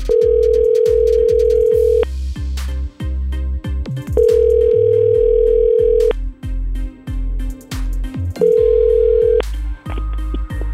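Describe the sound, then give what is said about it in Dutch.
A steady telephone tone sounds in three long bursts, each lasting a couple of seconds, while a rhythmic low beat and music continue underneath throughout, as Good Life Radio places a call to its first contest candidate. “Dus laten we eens eventjes onze eerste kandidaat gaan bellen.”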